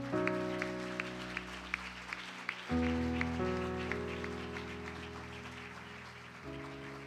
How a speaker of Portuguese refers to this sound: Aplauda Jesus, querido.